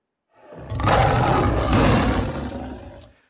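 A single deep, powerful lion roar swells up quickly and holds loud and rumbling for a few seconds before cutting off, heard alone with no talking.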